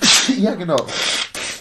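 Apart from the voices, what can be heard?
sneeze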